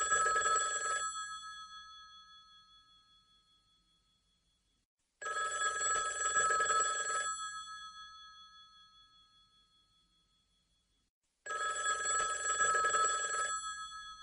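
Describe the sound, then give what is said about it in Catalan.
An old-style telephone bell rings three times in slow succession, each bright metallic trill cutting off and leaving a fading resonance, fairly loud, with no voices. “Oh, justament ara el telèfon.”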